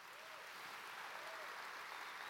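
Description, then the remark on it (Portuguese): A church audience claps for its pastors in a dense, continuous wash of applause that stays loud and even throughout, with no voices standing out. “Por isso eu queria que você desse uma salva de palmas para esses pastores.”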